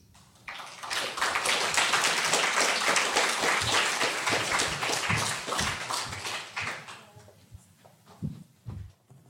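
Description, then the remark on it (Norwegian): An audience at an evening book discussion event bursts into sustained applause for the panelists, a dense wash of many hands clapping that holds steady for several seconds before thinning out into a few scattered claps near the end. “Gi dem alle en varm applaus.”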